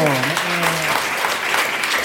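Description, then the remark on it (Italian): A crowd claps steadily for about two seconds, a dense, fairly loud patter of hands, with a voice briefly audible at the start beneath the clapping. “Applausometro!”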